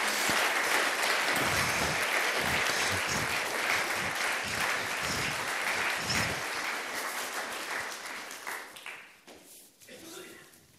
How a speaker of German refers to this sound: Herzlichen Applaus.